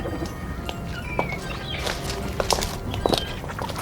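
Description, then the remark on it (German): Irregular footsteps approach, clacking on a hard surface on a quay at a tourist harbour in San Diego, against a steady outdoor background hum, the sharper steps near the end sounding slightly louder. “Plötzlich näherten sich Schritte.”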